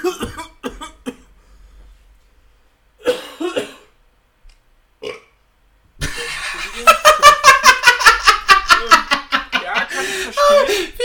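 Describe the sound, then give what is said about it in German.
A few scattered coughs, then a loud, rapid, sputtering coughing fit that runs for several seconds and ends in a rough, throaty burp. “Er ist so ein Hustenanfall, ich denke, der stirbt auf einmal. Burp.”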